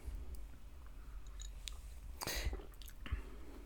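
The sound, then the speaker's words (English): A quiet sip of Sour Susie Berliner Weisse, a sour beer from Lervig Brewery, Norway, followed by soft wet mouth and swallowing noises, with a couple of brief louder slurps near the end and no talking. “Um, so I'm going to have a sip of that now because I haven't tried this.”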